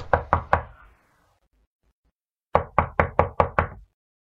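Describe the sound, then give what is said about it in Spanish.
Three sharp knocks on a door, a pause of about two seconds, then six quicker knocks in a steady rhythm. Fairly loud, with no voices. “¿Quién llama a la puerta?”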